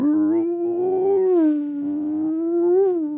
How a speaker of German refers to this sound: Ihr hört in der Ferne ein langes Signal.